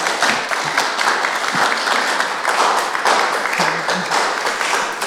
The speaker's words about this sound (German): Ja, da kannst du ruhig auch mal einen Applaus geben.